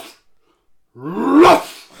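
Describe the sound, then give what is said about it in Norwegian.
A person imitates the deep, aggressive growl of a huge molosser dog that barks aggressively at them: one loud snarl that swells and rises for about a second before trailing off, preceded by near silence. “Nei, nei, men eh, den går og bjeffer aggressivt etter meg, da.”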